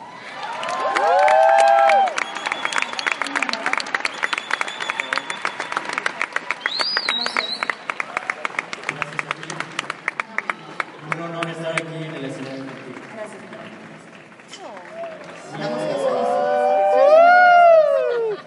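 An audience breaks into sustained applause mixed with cheers and whistles, dense rapid clapping filling most of the stretch, with shouts and whoops swelling loudly at the start and end.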